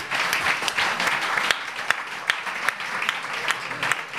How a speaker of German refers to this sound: Schön, dass ich auch für mich selber klatsche.